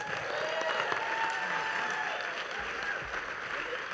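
A crowd applauds steadily, a dense, continuous wash of clapping hands that stays fairly loud and even throughout, with no pauses or speech on top.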